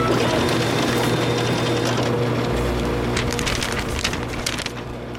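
A printer in a radio studio runs with a steady mechanical whir and dense clatter. A low hum joins partway through, and quick rattling bursts come near the end. No one speaks.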